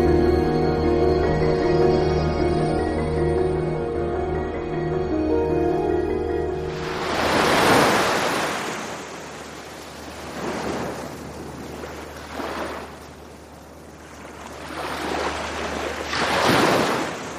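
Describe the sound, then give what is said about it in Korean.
Ocean waves roll onto a sandy beach at dusk on a Sunday in repeated loud surging washes, after a few seconds of sustained music that cuts off as the surf takes over. No one speaks. “그날은 과장님과 바닷가를 산책했어요.”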